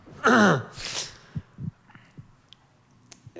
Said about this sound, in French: me craque le dos avant d'y aller sur George Miller